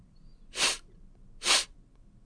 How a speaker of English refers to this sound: I walk up to Luther and I sniff.